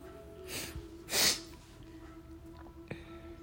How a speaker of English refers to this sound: Sorry for sniffing a lot, guys. It's my allergies.